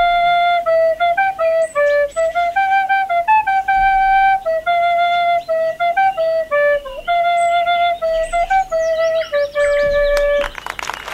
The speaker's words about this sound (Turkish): karşınızda kabiliyetli genç Satir Kukumal blok flütle şarkısını çalacak